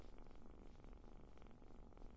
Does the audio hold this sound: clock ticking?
no